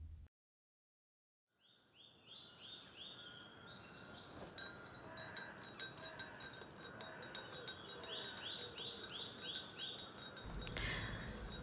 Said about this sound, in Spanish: Tenía el café entre mis manos mientras miraba el cielo y escuchaba a las aves titubear.